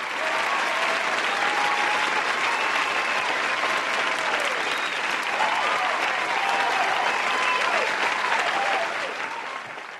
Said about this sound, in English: So we'll give him a big round of applause. There we go. See, big round of applause.